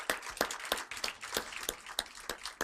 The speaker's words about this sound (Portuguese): Uma salva de palmas.